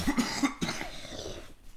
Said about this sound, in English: Let me mute, cough, and then I'll tell you.